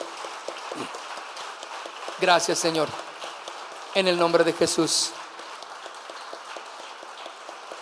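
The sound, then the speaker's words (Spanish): An audience applauds steadily throughout, a dense wash of clapping at moderate volume, given to the Lord during a church service, while a man speaks briefly over it twice. “Demos un aplauso ahora al Señor.”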